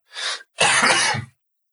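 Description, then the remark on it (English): A quick breathy intake is followed by one harsh, raspy cough from a person who has a cold, fairly loud, with no talking around it. “excuse me, I'm going to be intermittently coughing and spluttering throughout this because I'm full of cold, but we'll uh, we'll edit that after.”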